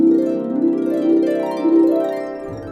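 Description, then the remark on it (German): A trombone plays lip slurs, changing pitch only by tightening or relaxing the lips and breath pressure without moving the slide, its rich brassy tone sliding smoothly up and down between a few notes in a continuous, moderately loud phrase with no one talking. “Tonwechsel mit dem Ansatz heißt, der Posaunist oder die Posaunistin kann nur durch das Anspannen oder Entspannen der Lippen plus den Atemluftdruck schon mal verschiedene Tonhöhen erzeugen.”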